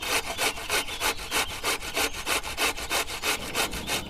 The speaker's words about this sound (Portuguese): Primeiro é preciso escolher um gengibre bem molinho. Por quê? precisamos que seja muito macio e não fibroso. Depois de bem lavado, vamos raspar a polpa com uma colher.